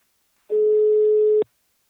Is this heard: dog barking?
no